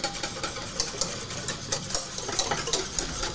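A whisk beating pastry cream rapidly in a pan until it boils, a steady fast scraping and ticking rhythm that carries on throughout, with no voices.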